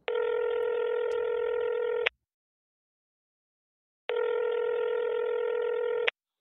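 Two long, steady electronic telephone tones of a call being placed, each lasting about two seconds with a quiet pause between them, heard clearly and alone with no voices.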